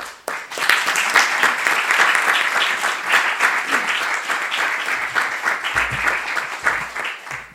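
A crowd applauds steadily for a speaker from the Dominican Republic being called up, dense overlapping claps sustained at a strong, even level for several seconds before thinning slightly near the end.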